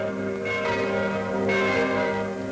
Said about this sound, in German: Die Glocken haben am Dienstagabend den Frieden verkündet.